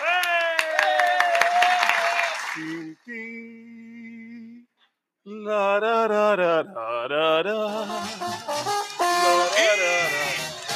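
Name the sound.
loud audience applause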